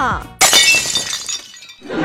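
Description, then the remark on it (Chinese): A sudden, loud glass-shattering crash sound effect on the glass skywalk at the East Taihang (Dongtaihang) scenic area, bursting in with bright, crackling fragments that ring and fade over about a second, with a voice briefly heard just before and another starting after. “而那些以为闭着眼走就没事了的，可以说是太天真了，因为这个玻璃碎裂的特效还是带声音”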